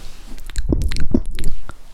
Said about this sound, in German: Wir könnten auch ein bisschen so ASMR machen. Aber dann müssen wir so schmatzen, so nah Mikrofon. Stimmt. Hört man das? Ja, ich glaube schon. Warte, ich mach's nochmal.